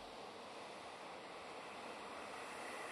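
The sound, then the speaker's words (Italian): A soft, warm, steady wind blows without pause, a smooth continuous rush with no gusts or breaks, fairly quiet and even throughout, with no voices present. “Questa calma che mi avvolge come questo vento tiepido, vellutato, che mescola tra loro i respiri di tutti i combattenti”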